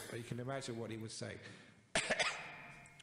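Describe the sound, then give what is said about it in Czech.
A voice makes strained, throaty sounds, then breaks into a short cluster of two or three harsh coughs with a bit of throat clearing, from a person with a cough and a swollen throat. “Mám kašel a oteklý krk, ale dovedete si to představit.”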